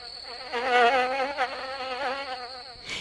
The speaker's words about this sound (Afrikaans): Mani het skaars klaar gepraat of hy en Drietjie Dassie hoor gezoem wat al hoe nader kom.